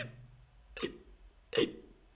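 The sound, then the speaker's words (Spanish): Two sharp hiccups sound about a second apart, each a quick gulping catch of breath, with the tail of a voice fading out just before the first. “¿Quién le quita el hipo al hipopótamo?”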